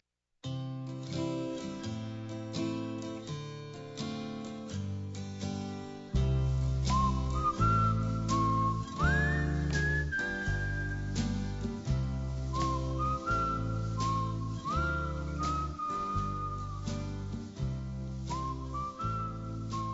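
An instrumental song plays loudly with no voices, a gliding, whistle-like melody over steady pulsing bass notes; fuller accompaniment kicks in a few seconds in and continues to the end.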